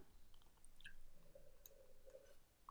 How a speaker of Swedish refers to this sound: Mm eh, sitta och dricka vatten också. Jag trodde jag skulle ha tid med det men eh, nu har jag svalt